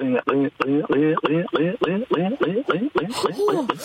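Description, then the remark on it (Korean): A person vocally imitates water pouring from a kettle with a quick run of rhythmic, gurgling glugs, fairly loud, ending in a brief airy hiss. “아 주전자에서 물 따르는 소리.”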